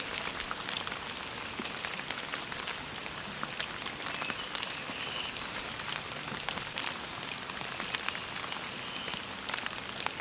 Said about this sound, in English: Rain is letting up a little bit.